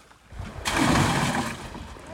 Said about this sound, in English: We're taking these to the blue boat. The crew fills a cage with water on the processing raft. Then they dump the fish in.